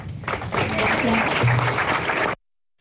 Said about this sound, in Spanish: Y ese era el aplauso para las nietas, las nietas de Kundi, hoy en ese acto tan emotivo y ellas quisieron tomar la palabra, como decimos, y después la foto, el posado,